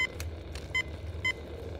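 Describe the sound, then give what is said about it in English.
A few short, bright electronic beeps sound in quick, uneven succession as buttons are pressed to set a timer for 15 minutes, over a low steady rumble of background noise. “Set the timer.”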